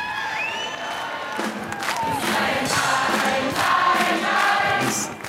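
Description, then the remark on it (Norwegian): A large crowd in Norway cheers and shouts continuously, celebrating a referendum result, with whoops and raised voices blending into a loud, sustained roar that swells slightly toward the end. “En annen ting er jo å se bildene av alle dem som jubler.”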